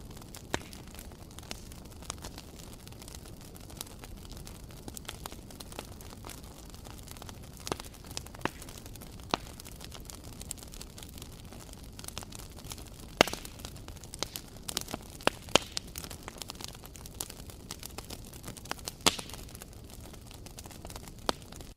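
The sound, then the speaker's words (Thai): A campfire crackles steadily on its own, with a soft constant roar of flames broken by scattered sharp pops and snaps, a few louder ones standing out. No one speaks. “ส่วนใหญ่กิจกรรมนี้หรือว่าเสียงนี้มักจะได้ยินตอนกลางคืนด้วยนะครับนั่นก็คือเสียงของกองไฟนั่นเองครับ”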